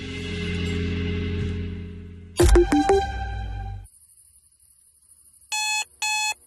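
A low droning hum gives way to a burst of clattering metallic tones, then silence, and finally two short bursts of an electronic alarm clock beeping rapidly and loudly, in a radio advertisement for NIBC.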